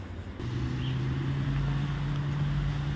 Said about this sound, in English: That noise you hear in the background is the campus bus service, the public transit that's available for free to people who, uh, well, it's ideally designed to be used by members of the University of Iowa campus